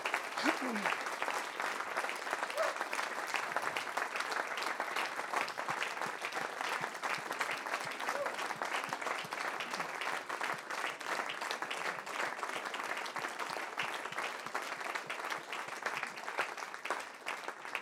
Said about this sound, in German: Ich fände es so gut, wenn wir unsere älteren Geschwister einfach nochmal mit einem Applaus ermutigen, einfach Dank ausdrücken.